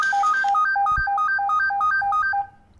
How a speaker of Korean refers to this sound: 전화가 왔군요.